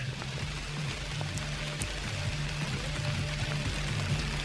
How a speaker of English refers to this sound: I'm going to end dramatically with the sound of rain.